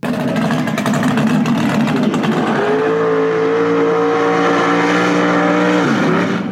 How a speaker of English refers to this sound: and this muscle car sounds. But uh, that, that hear that cam that lump of that cam going. I'm telling you.